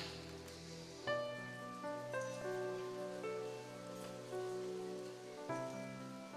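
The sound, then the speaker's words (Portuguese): A large crowd applauds Jesus steadily and loudly after a prayer, a dense continuous patter of clapping over sustained keyboard chords that shift every second or so. “Se você orou isso com fé, aplauda Jesus bem forte onde você está.”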